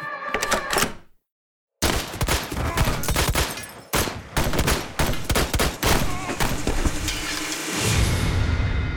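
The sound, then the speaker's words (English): A rapid, chaotic exchange of gunfire in a shootout, with loud sharp shots cracking in dense bursts after a brief silence, then a lingering ringing rumble as the shooting tails off. “The smell of gunshot residue hangs thick in the air.”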